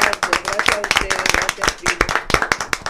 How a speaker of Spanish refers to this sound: Y nosotros te vamos a despedir con un gran aplauso y con muchísimo cariño.